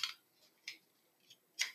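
A beer bottle being opened: four short, sharp metallic clicks and snaps spaced unevenly over a couple of seconds, fairly quiet, with no voices.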